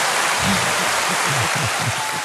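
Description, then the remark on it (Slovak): An audience gives a second, bigger round of applause after a short one, clapping steadily and loudly for the whole moment, a dense wash of hands with low murmuring voices faintly beneath it. “veľký potlesk.”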